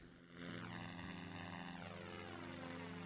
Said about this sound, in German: Es ist halt kein gutes Flugzeug, weswegen etwas komisch fliegt, aber es geht. Ich hoffe, es geht.